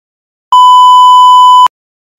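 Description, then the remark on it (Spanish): A single loud censor bleep covering a spoken name, a steady high-pitched tone lasting just over a second that starts and stops abruptly, with silence on either side and no voices audible. “Eh, el nombre también lo voy a mencionar, asumo que acá la editora va va a censurar el nombre.”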